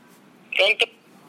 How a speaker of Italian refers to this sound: Squilla.